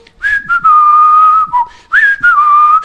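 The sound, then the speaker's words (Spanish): Someone whistles the Marcha de San Lorenzo, a military march, loud and clear, in long held notes broken by short pauses, with no talking. “dijo, vamos, y silbando la marcha de San Lorenzo,”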